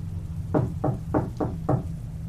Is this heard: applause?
no